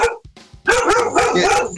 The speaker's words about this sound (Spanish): El perro no le está gustando eso, ya. No, es que son, son perros, son perros